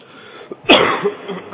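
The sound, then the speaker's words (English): A single harsh cough bursts out after a quiet moment, followed by a rougher throaty rasp trailing off; no talking. “Excuse me when I cough.”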